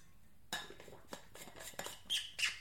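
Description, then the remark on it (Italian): Someone takes a sip of water: soft clinks and handling of a glass, followed by a few small slurping, swallowing sounds, with no talking. “mamma mia bevo, bevo un goccio d'acqua”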